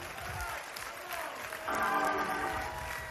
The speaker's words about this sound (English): If you hadn't clapped your hands yet this morning, now's a good time.